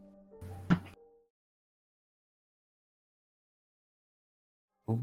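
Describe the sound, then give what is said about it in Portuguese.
A short, loud knock-like thud on a door, followed by a long silence and then a second abrupt burst at the very end. No one speaks. “A porta tá com defeito. Tá, tem alguém batendo.”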